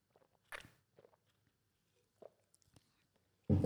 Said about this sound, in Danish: nu tager jeg lige en slurk af min, min drik igen, ikke?